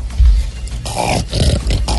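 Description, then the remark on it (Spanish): A dog named Negro growls, a deep, rough rumble that swells and dips in a few throaty bursts, loud and continuous with no talking over it. “¿Qué, qué, qué es eso? El perro que el perrito que me gusta la tutela.”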